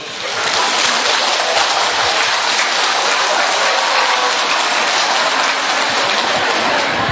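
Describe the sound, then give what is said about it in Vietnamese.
An audience claps for a four-month-old baby in a steady, dense round of applause, a loud rain-like patter that holds evenly for about seven seconds without any voices. “một tràng pháo tay cho bé”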